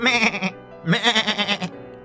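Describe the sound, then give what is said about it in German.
A goat bleats twice in close succession, each call loud, wavering and nasal, the second slightly longer, with no talking and a brief quiet after. “Die Ziege wurde von einer Biene gestochen, so dass sie aufsprang,”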